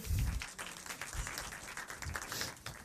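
A round of applause for a prize winner from Covilhã at a Matrix-themed event: dense, crackling hand clapping that holds at a steady level for about three seconds, with a few dull low thumps underneath.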